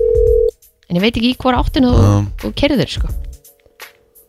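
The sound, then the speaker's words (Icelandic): A steady electronic ringing tone of an outgoing phone call, made to ask a woman what a place is called, sounds alone for about half a second, then people talk over the line while a faint continuous tone returns near the end. “Ringjum í hana, spyrjum hana hvað það heitir”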